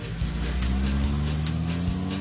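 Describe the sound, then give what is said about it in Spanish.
A car engine rumbles loudly, its low drone shifting pitch a couple of times as it revs and pulls away, with no voices. “Cámara, ya súbete al carro rápido.”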